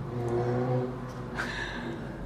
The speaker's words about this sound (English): Welcome to a British car meet. It's Golf R's farting all the way down the road. I hate that farty sound.